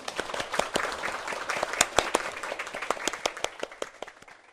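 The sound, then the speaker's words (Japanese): An audience applauds the two people who gave presentations, many hands clapping in a dense, irregular patter that holds steady for several seconds before thinning out toward the end. No one speaks over it. “お二人の方に、えーと、発表してくれた二人の方に大きな拍手をお願いいたします”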